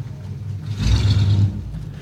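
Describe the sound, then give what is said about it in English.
A car engine idles with a low thrum on a late-night highway, then revs up briefly as the driver guns it forward a little, swelling in loudness for about a second before settling back to a steady rumble. “And just the uncertainty in her voice and the the the thrum of his engine as he guns it forward a little bit, all this menace that's added.”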